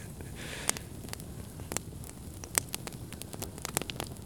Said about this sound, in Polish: Mamy ogień. Jest ratunek.